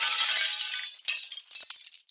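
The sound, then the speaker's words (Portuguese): Window glass shatters in a loud, bright crash, followed by scattered tinkling shards falling and clinking for about two seconds before fading out. No voices. “Uma janela que se partiu.”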